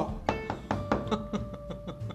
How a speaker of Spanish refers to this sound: Vamos a tocar la primera puerta.